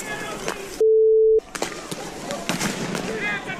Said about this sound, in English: They're firing rubber bullets.